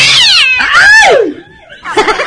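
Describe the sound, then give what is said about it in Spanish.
A cat yowls loudly, with a long, wavering, rising-and-falling screech that trails off, followed after a short pause by a burst of choppy, pulsing cries. “¡Ay, gato! ¡Las medias! ¡Ay, gato!”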